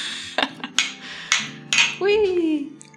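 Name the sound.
glasses clinking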